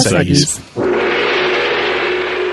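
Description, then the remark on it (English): A brief bit of speech, then a single loud gong strike that rings out in a sustained, shimmering wash with a steady low hum, barely fading over the next two seconds. “by the sound of the gong, it must be time for Mystery Movie Moment”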